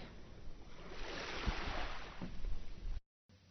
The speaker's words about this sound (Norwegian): Jeg sitter ute ved havet. Hvor mer åpent kan det ikke bli?